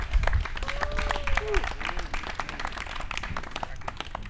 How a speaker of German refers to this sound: Ja, unser Gott ist so gut. Wollen wir ihm nicht mal einen ganz kräftigen Applaus geben? Wow!